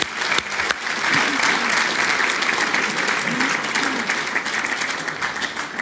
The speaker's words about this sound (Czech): Ještě raz potlesk, přátelé.